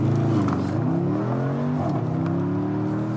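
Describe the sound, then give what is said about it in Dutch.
A Porsche Panamera Sport Turismo engine revs and accelerates, its low, steady drone rising and shifting in pitch through gear changes, loud and continuous throughout with no talking. “Ja, mensen willen heel graag weer eens in een Porsche rijden.”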